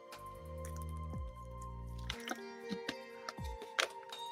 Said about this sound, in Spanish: Déjame tomar un poquito de agua.